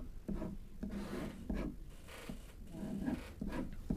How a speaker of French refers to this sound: Regardez, je vais vous écrire son nom.